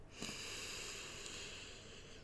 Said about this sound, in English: So breathing in one, two, three, four, hold one, two, three, four, exhale one, two, three, four, but a lot slower than that. So let's do that together right now. So I'm not going to count, just count in your heads already. Breathing in,